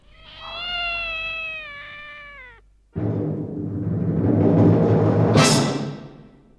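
A cat lets out one long, drawn-out meow, then breaks into a loud, harsh yowling cry that rises to a shrill peak near the end. It is clear, with no talking.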